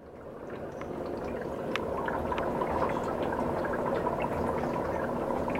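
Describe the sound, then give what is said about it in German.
Liquids bubble in glass vessels standing all around a laboratory room in the Berlin Technology Park Adlershof: a steady, dense bubbling and gurgling, with scattered brief ticks and pops on top of a continuous watery wash that fades in at the start. “Überall stehen Glasgefäße mit blubbernden Flüssigkeiten herum.”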